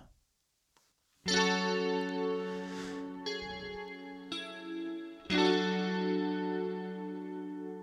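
A distorted electric guitar rings out as the intro of a song, with heavy, sustained power chords after a brief silence, each chord struck hard and left to drone, loud with a thick, saturated tone.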